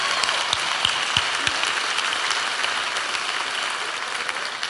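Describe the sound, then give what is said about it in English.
An audience claps together in a dense, steady wash of applause, with a few sharp individual claps standing out near the start before the sound settles into an even roar. “Everybody, let's clap again, all right?”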